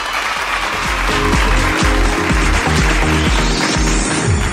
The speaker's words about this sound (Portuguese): Merece uma salva de palmas.